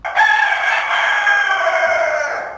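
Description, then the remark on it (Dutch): A rooster from Breda, Netherlands, crows loudly, one long strained cock-a-doodle-doo that holds for a couple of seconds and slides slightly downward at the end, with no talking. “Ook nog even wat reacties van de hanen uit Breda.”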